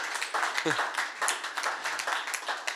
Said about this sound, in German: Yes, hey, lasst uns im dem Lobpreisteam einmal einen richtig tollen Applaus geben. Richtig gut, danke.